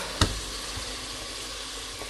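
Steady, crackling sizzle of turkey meat frying in a pan with onions, with a sharp clunk near the start as the meat goes in, then continuous hissing with no voices.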